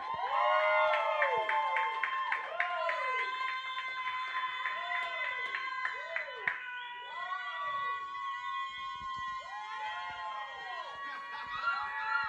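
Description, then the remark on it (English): A live crowd at a rap battle event cheers loudly and continuously for Nelly ProToolz, full of high whoops and rising and falling yells, with scattered claps faintly underneath throughout. “Clap it up if you think Nelly ProToolz got this right now.”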